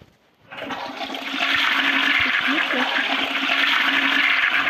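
A toilet flushes with a sudden loud rush of water after a brief quiet start, sustaining a broad gurgling, hissing roar with a low hum underneath, as a baby is flushed down the toilet.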